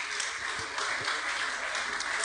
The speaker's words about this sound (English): Very, very light applause because people don't want to make it a competition between with a double mastectomy, lady.